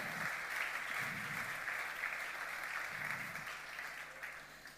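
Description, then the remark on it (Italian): A church audience applauds steadily during a sermon, a dense wash of many hands clapping at an even level for several seconds, gradually tapering slightly toward the end. “Vogliamo fare un applauso a queste versioni che andranno via.”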